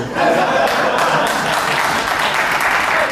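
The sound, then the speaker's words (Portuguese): Steady audience applause for a Corinthians-supporting father who registered his son with the name Corintienzo, a dense wash of many hands clapping at once, loud and sustained with a few scattered voices faintly mixed in. “Esse aplauso foi pro pai, agora eu vou fazer a piada.”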